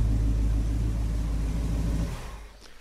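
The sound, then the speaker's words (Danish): A big American V8 engine of a red 1965 car idles in a garage with a deep, loping rumble, loud, then cuts off after about two seconds, leaving a brief fading hum. “ja, det er en øh, amerikansk b 8er Skal jeg love for.”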